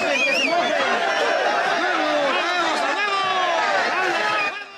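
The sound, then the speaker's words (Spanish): A dense crowd of agitated voices shouts and yells over one another, loud, sustaining a chaotic uproar for several seconds before cutting off abruptly, as a brawl breaks out during a town council election held by show of hands. “Pero cuando dos candidatos quedaron en la recta final, Iniciaron los gritos, luego los golpes.”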